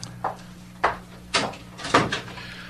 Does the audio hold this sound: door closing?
yes